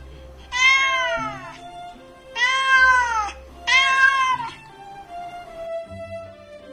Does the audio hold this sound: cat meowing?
yes